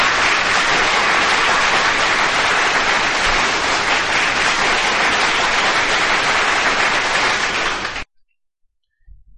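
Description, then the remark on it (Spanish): Loud, dense applause from a crowd fills the scene for about eight seconds, a steady wash of clapping that cuts off abruptly into near silence. “¡Aplaudámosla!”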